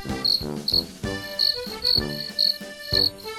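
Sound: crickets chirping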